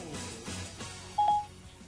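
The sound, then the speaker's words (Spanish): A brief, loud electronic phone-dialing tone beeps once partway through while calling a mobile phone, standing out clearly over a soft, murmuring background. “llamando al celular de Chucho el Gordo”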